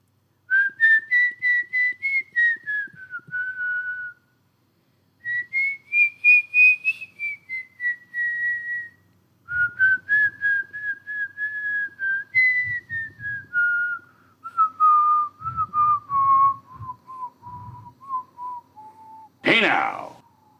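Someone whistles the outro melody of a song, phrases gliding and descending in pitch over about twenty seconds, with soft low background noise and a brief burst of breathy noise at the end.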